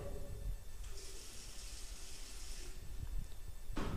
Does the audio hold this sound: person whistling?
no